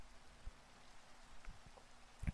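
Steady, soft rain hisses evenly in the background, with a few sharper drops tapping near the end. No voices are present.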